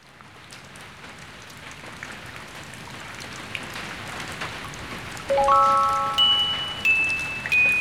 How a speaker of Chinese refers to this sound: 在寂静的夜里，一个人闭上眼睛，听雨的声音，滴答，滴答。